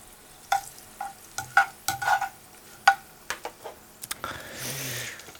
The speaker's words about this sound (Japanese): にんにくきつね色にほんのりなってきたらここにサバを入れていきます、はい、でサバは皮目からですね